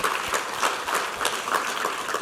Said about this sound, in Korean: 할렐루야 우리 하나님께 우리 감사와 영광의 박수 올려드리시겠습니다.